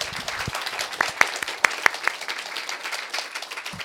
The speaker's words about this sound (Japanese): 一度大きな拍手をお願いします